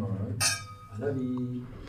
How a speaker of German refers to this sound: Sind wir gespannt. Santé. Anstoßen, gell? Ja, ja. Ja, nicht vergessen.